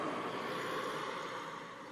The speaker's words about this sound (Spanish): Pasa un carro